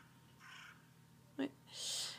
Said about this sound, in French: Euh, voilà, il y a même un corbeau qui m'a répondu.